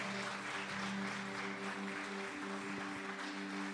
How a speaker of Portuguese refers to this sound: Dê uma salva de palmas bem forte a Ele.